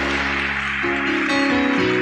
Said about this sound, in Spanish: ¿Cuántos le pueden dar un aplauso a Dios?